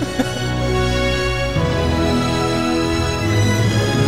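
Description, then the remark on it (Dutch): Sweeping orchestral soundtrack of the Soarin' Over California theme-park ride, found in Anaheim and also Orlando, plays loud, with sustained brass and strings holding rich chords that shift partway through, no voices over it. “maar het komt ook omdat als je deze kent, oké, hij is ook in Orlando, maar het is toch hoofdzakelijk als je dit hoort, dan weet je dat je eigenlijk in Anaheim bent.”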